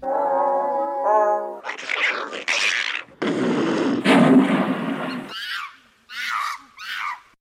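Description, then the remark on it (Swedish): A rapid sequence of animal calls: a seal's tonal bark, a mink's harsh hisses, a leopard's rasping snarl, a hippo's long grunting bellow, then a monkey's short high chattering cries, all loud. “Det där var säl, mink, leopard, flodhäst och apa.”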